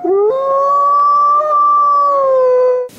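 A wolf lets out one long, loud howl that rises quickly, holds a steady pitch for nearly three seconds, then cuts off, followed by a short burst of noise.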